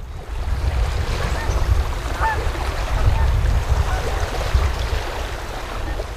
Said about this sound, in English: you can hear the wind going through his microphone that it's obviously windy by the river